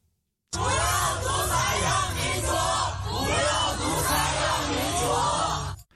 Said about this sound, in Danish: Prøv at høre et klip, vi har fra en øh, demonstration på Urumqi Road, må den hedde, i Shanghai mm. lørdag aften.